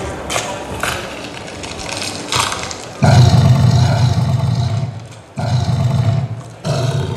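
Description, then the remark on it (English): A deep, gravelly animatronic creature roar, triggered by thumb pressure on a sensor in a glove, rumbles loudly in sustained bursts, briefly dropping off and surging back, with a rough, growling texture throughout and no talking. “Yeah, there's just a little pressure sensor in there, that, and I can hold the roar, the gravel down for as long as I want, so you can.”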